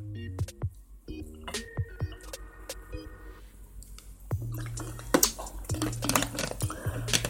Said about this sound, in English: Yep. Let me get it on down the hatch with a big old bottle of water.